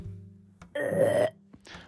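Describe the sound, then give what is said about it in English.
A single drawn-out, raspy burp voiced by a person imitating the sound, fairly loud, lasting about half a second, with a low hum before it and a short breathy trail afterward. “Wow, I didn't think you were going to give a sound effect for a burp, but you did.”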